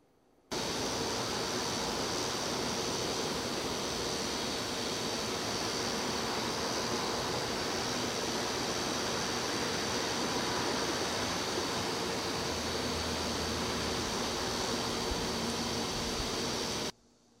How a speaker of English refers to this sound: This is the indoor test for the Tascam DR60. And this is what it sounds like. I'm using a shotgun mic. And I'll be quiet for a little bit just so you can hear the fridge in the background.